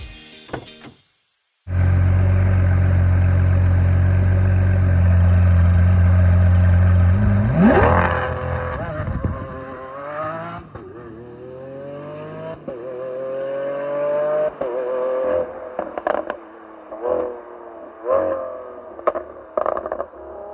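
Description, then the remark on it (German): A sports car engine starts with a loud low idle rumble, then roars as it accelerates hard, in less than perfect weather conditions, the pitch climbing steadily through several gear changes with brief dips between shifts. The car does 0 to 100 in 2.8 seconds and 0 to 200 in 8.6 seconds. “Ich habe das aber für euch ausprobiert und das hört ihr jetzt.”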